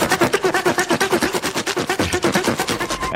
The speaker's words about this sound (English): Oh, it's the thing I play at the top of the show. uh, saving or sawing the cowl noise.